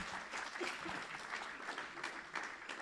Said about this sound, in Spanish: Denle un fuerte aplauso al Señor. Un fuerte aplauso al Rey de Reyes.